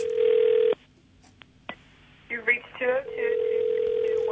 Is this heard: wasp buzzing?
no